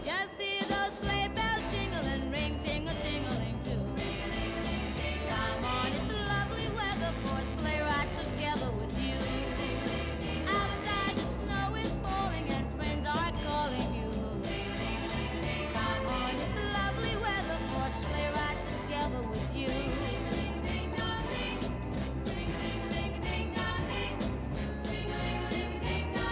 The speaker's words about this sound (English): there is at least four, maybe five key changes. Oh yeah, in this song, we oh, just oh, yeah. heard a key change, but they keep going they throughout keep going. the whole. It's like a stairway to key change heaven